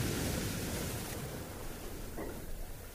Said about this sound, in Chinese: 你最喜欢浪花从沙滩上缓缓退下的沙沙的声音。你听着海浪打了上来，又缓缓的退下去。